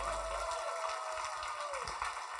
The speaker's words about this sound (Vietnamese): Chúng ta có thể dâng một tràng vỗ tay tiếp tục hơn cho Chúa của chúng ta.